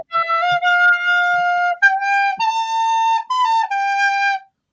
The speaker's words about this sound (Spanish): toca la flauta, ahora se me enamoré.